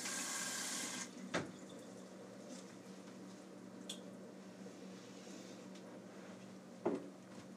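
A pot of potatoes boiling in water gives a steady, low bubbling simmer. A brief watery rush comes at the start, and a couple of sharp clinks follow later.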